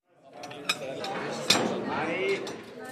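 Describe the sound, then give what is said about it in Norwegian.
Dishes and cutlery clatter at lunch in the dining hall of Fjellhaug Bible School in Oslo, with two sharp clinks standing out over a steady murmur of many voices chatting in the background. “lunsj i matsalen på Fjellhaug bibelskole i Oslo.”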